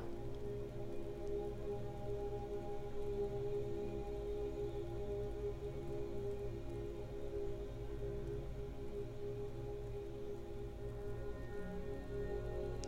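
A steady, unbroken wash of rushing water from a waterfall in the background of a garden holds at a soft, even level throughout with a faint low hum beneath it and no voices.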